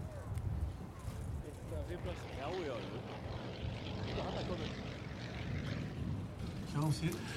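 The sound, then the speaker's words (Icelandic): A propeller airplane engine at an air show drones steadily and loudly, with a rumbling low hum running throughout while people's voices talk over it. “hérna er Primus mótor í fluglunum þitt.”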